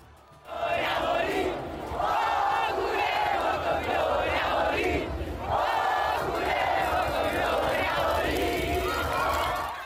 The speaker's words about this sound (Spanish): La celebración más grande se vivió en el obelisco donde los tambores, claxons y cantos no dejaron de escucharse.